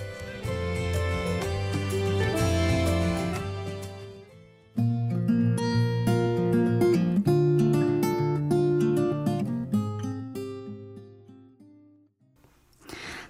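A mellow pop song plays at steady volume, with sustained chords and a clear melodic line that briefly drops out around four seconds before resuming and fading near the end. No talking.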